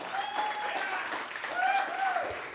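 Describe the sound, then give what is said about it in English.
Steady, dense applause from an audience at an H2O church gathering fills the whole stretch at an even level, with rising and falling whistles and cheering voices cutting through the clapping, welcoming a man about to share his story. “So, can you give a round of applause”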